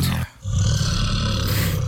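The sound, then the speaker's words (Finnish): A loud, deep bear roar rumbles, broken by a brief pause near the start before the throaty growl resumes and carries on steadily with no voices present. “Vaikka nyt äh, olette siellä pilkillä ja näette karhun tallustelevan, ei ole mitään syytä hätään.”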